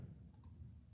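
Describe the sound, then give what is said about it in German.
Two or three soft, quick computer mouse clicks in quick succession, clicking on the year in the Windows calendar, quiet, over a low steady background rumble with no one speaking. “Nein, man kann doch äh, direkt auf die Jahreszahl klicken.”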